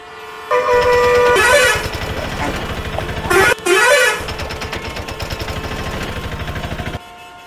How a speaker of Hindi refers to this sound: आज ऐसी ही इतवार की भरी दोपहर में जे जे रोड पर चक्का जाम हुआ पड़ा है